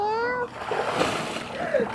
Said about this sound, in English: So like ALS, whenever we did the, the bucket challenge, you're pouring the water on them.